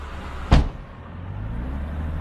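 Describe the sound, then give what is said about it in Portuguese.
A car door shuts with a single solid thump, then a steady low engine rumble takes over as the car starts moving, being driven toward the city, with no voices. “Entre no carro e falamos enquanto conduzo para a cidade.”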